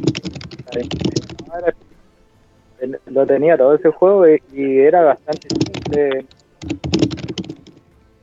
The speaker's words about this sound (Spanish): ¿Quién está escribiendo en una máquina de escribir, weón? Oye, weón, hay que estar en una máquina de escribir antigua que le hace.